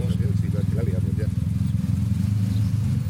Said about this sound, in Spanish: Ese sonido, amigos míos, que habéis oído llegar, pues son las dos motos que estamos criticando. Las motos Select.